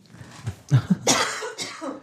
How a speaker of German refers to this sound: Oh, jetzt muss ich husten.